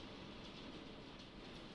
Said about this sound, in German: Alter, es windet mega. Es regnet so weit bis zur Tür vom Balkon, der überdacht ist, ey so heftig.